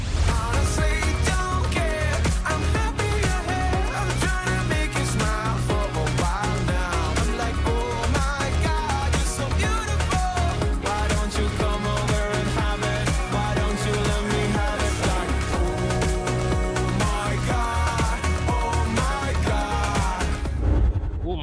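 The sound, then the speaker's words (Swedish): A pop song plays at steady volume, with a thumping bass beat driving a dense, bright mix of layered instruments and synths, continuing unbroken before cutting off abruptly at the end. “Ja, och låten låter så här.”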